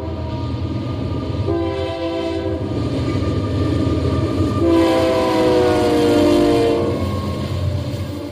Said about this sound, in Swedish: Och godstågen som kör längs Mississippi är långa och de tutar hela tiden.